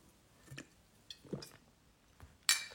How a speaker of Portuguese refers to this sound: Beber um pouquinho de água, por favor.